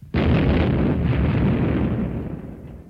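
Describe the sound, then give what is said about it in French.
A single loud explosion bursts in suddenly, followed by a heavy, roaring rumble that slowly fades over a few seconds. No voices are present. “Ils risquent leur vie car les explosions sont régulières.”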